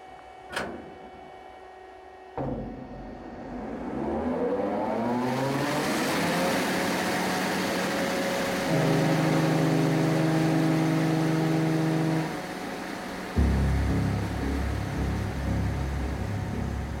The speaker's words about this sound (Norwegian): Klokka to om natta hører de at motoren på Skjærstad er i gang. Båten går.